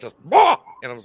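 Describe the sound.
A person loudly imitates a single sharp dog bark, a short forceful shout, followed by a bit of casual talking from the same voice.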